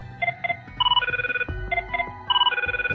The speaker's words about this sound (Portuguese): Ele atende o, telefone assim, toca o telefone ele, Bauer.